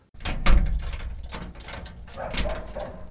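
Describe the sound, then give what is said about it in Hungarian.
A heavy cellar door is opened by a man, with a thud followed by rattling, creaking and scraping, and a few sharp metallic clicks from the latch and hinges; the cellar, reached by steep stairs, holds kiwis. “nyitja pince ajtaját, azt mondja, hogy itt vannak a kivik.”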